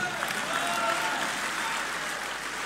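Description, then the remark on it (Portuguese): Sustained audience applause for André Ventura, leader of Chega, a dense, steady wash of many hands clapping at full loudness for the whole stretch, with a faint murmur of voices mixed in. “Muito aplaudido mais uma vez André Ventura, numa referência uh, a uma ideia que é frequentemente veiculada pelo líder do Chega: uh, meio país trabalha para o outro meio.”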